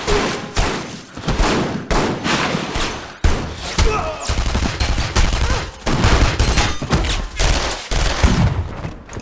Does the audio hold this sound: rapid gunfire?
yes